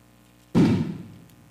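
A single muffled boom of a firecracker from a street procession going off, a dull low thud that fades out over about half a second, with no one talking.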